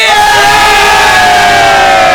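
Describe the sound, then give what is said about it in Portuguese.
Many people shout together in a loud, sustained crowd roar, voices layered into a dense, raised clamor that holds steady for a couple of seconds without distinct words. “Pessoas gritando!”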